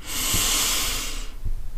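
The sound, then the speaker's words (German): A single long, deep breath drawn in through the nose during a guided breathing exercise, an airy hiss that holds steady for over a second and then fades out, with no talking. “Und ich würde dich jetzt dann einladen, wenn du angekommen bist, nochmal drei tiefe Atemzüge mit mir jetzt gemeinsam zu machen. Wir atmen durch die Nase ein”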